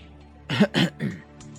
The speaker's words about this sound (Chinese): 不自然的咳嗽了几声